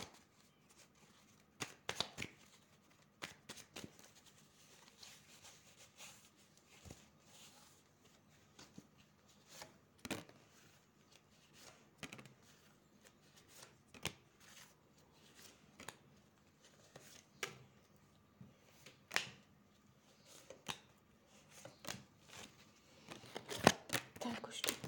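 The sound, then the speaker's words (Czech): Tarot cards are shuffled and handled during a relationship reading, giving a long run of crisp, irregular snaps and soft rustles that sometimes bunch into quick flurries, with a faint murmur of a voice now and then. “Já už se dívám na vaše fotky, držím u toho karty a mrkneme teda na tento partnerský vztah.”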